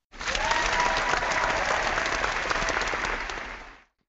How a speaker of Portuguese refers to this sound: E a partir daí foi vindo uma atrás da outra aí já são, né, nesses 13 anos aí de provas, são 432 corridas. Salva de palmas, ô Sonoplaça, por favor.